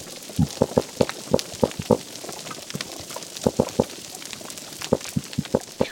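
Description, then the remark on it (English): Underwater fish calls: bursts of short, rapid knocking grunts in quick rhythmic runs, with a few deeper booming pulses, separated by brief pauses over a faint watery hiss. “So I think these are two fish which are communicating nearby.”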